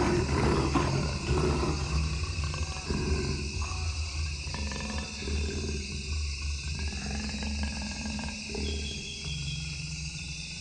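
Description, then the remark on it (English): A jaguar from the Amazon roars in a series of deep, rasping grunts, loud and repeated in a rough rhythm over a steady hum of insects and forest ambience. “And the last word goes to a jaguar from the Amazon.”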